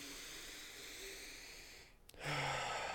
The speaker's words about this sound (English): in through the nose, out through the mouth. Work on slow breathing.